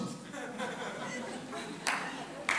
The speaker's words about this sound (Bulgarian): Чакай е преди да пляскаш. Ще ти дам сега да пляскаш.